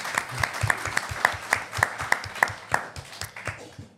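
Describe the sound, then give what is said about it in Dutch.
Steady, evenly paced clapping, about three claps per second, sharp, like a small group or single person applauding for a few seconds with no talking. “Ja, applaus.”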